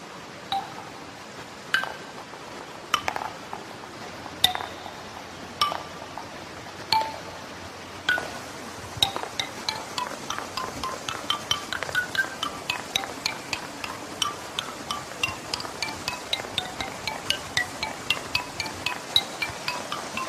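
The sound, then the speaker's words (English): A wooden ball clacks and pings as it drops onto each of a series of small stands down a sloping hill. The hits are evenly spaced at first, then quicken into a rapid patter, over a soft continuous wash of flowing stream water. “it's going down this sloping, beautiful sloping hill, but this wooden ball is dropping on each little uh, stand”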